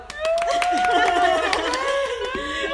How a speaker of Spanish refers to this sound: Un aplauso.